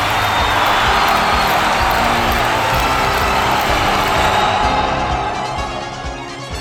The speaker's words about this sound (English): The Terrahawks are back, and listen to the crowd roar.